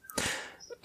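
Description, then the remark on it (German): A single sneeze: a sudden, explosive burst of breathy, hissing noise that fades over a fraction of a second, followed by a short soft sound at the end. “Gesundheit.”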